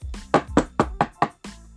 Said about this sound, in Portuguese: E lá estava o porquinho, descansando na sua casa nova, quando de repente ouviu um barulho, uma batida na porta.